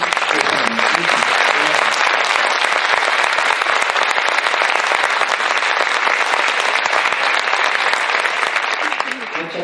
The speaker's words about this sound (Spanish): Podríamos estar hablando más, pero yo creo que le vamos a recibir con un fuerte aplauso agradeciendo que esté desde Londres aquí.